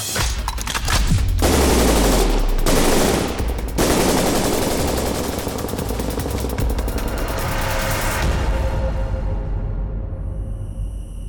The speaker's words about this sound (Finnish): Rynkkynä oli ladattu paukkupatruunoilla, joten annoin saman tien laulaa.